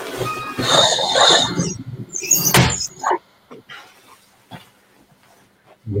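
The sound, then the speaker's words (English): Young kindergarten children shriek and shout while playing outside beneath a home during their break, a busy, high-pitched clamor at first, then a sharp loud bang, followed by scattered, quieter cries and thumps. “No, I've got a kindergarten underneath my home, and they just probably went to a break.”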